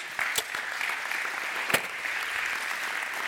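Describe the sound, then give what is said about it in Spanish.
An audience claps for Christ Jesus in a steady, dense, continuous burst of applause, with a few sharper individual claps standing out, sustained at an even level throughout. “Denle un aplauso a Cristo Jesús.”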